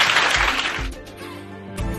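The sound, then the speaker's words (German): A short burst of audience applause, a dense crackling clatter that fades within the first second as steady music with a low, thumping beat takes over. “Vielen Dank nochmal, euer Applaus und wir machen einen Raumwechsel schnell.”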